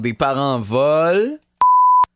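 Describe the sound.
A man speaks briefly, then a single steady, loud electronic beep at one pitch cuts in for about half a second, bleeping out a word before silence.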